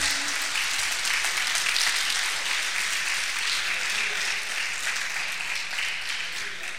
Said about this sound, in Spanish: Dale un aplauso al Señor.